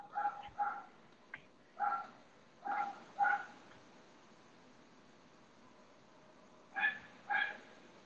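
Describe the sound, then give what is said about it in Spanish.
A dog barks from a house across the street, several sharp barks in quick pairs, fairly distant and moderately loud over a steady background hiss, with a pause before two more barks. “¿De quién es ese perro, güey? Mames, ¿lo escuchas, güey?”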